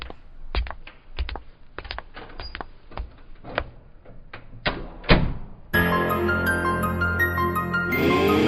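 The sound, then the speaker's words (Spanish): A door to the confessional room is opened with a series of sharp clicks and thunks from the handle and latch over several seconds, followed abruptly by music starting up. “Por Pues La puerta. Está cerrada. Ah, os abro.”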